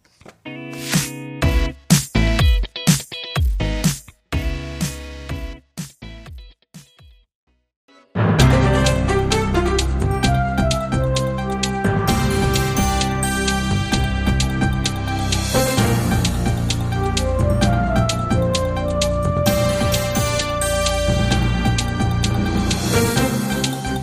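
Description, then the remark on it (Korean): A song plays on the radio with no talking: a few sharp, punchy hits open it, a short silence follows, and then a full, loud band arrangement comes in and plays steadily to the end. “인전 노래 듣고 올게요.”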